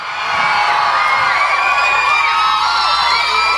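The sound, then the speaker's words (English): A loud, sustained crowd cheers and whoops, many voices blending into a bright roar that swells quickly and holds steady for a few seconds with scattered high shouts on top. “Somebody give cheer.”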